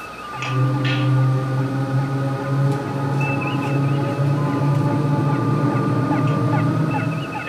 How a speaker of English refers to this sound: Mr. Sulu. Our forward tractor beams adjust to repel. Aye, aye, sir. Standing by. Activate.